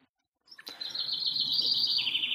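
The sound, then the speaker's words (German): A small bird chirps continuously in the background in a rapid, high trill that starts abruptly and holds steady, beneath a faint low background hum. “Aber das Vögelchen, das da zwitschert gerade im Hintergrund, bist du das auch?”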